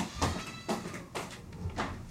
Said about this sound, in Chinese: 我家的猫在叫，好。